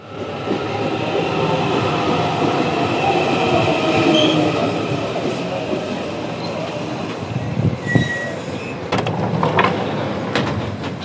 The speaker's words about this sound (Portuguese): Hoje, mais uma vez, estou indo para a faculdade e dentro do trem, porque a viagem é um pouco longa.